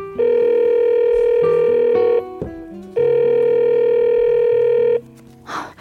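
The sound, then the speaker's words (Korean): The ringback tone of a phone call placed to a girlfriend around 10 p.m.: two long steady electronic rings of about two seconds each, separated by a pause. A short click sounds between them, and a brief rustle follows at the end. Nobody speaks. “밤 10시쯤 됐는데 연락이 없어서 제가 전화를 했죠.”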